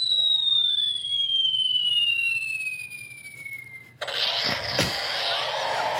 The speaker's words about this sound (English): Yeah, that was a bomb.